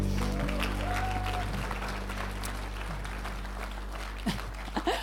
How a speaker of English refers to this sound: Awesome. Thank you so much. Amazing worship team. Keep your applause going.